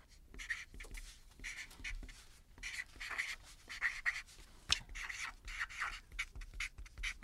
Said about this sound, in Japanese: そちらの色紙に書いていただけるでしょうか